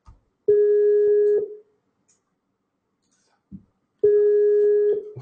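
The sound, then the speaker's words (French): A phone ringback tone from an outgoing audio call sounds twice, each a steady electronic hum lasting about a second, separated by a long silent gap, with a soft click between rings. “Ça sonne.”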